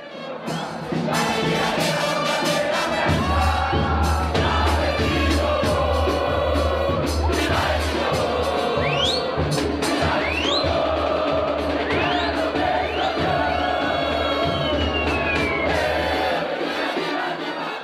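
Grêmio football fans chant a song together, a loud, dense mass of voices holding a melody at a steady volume throughout, with a deep rumble underneath from about three seconds on.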